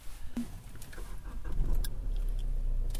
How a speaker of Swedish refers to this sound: Starta bilen då så att vi får det här ja. ljudet av att starta bil.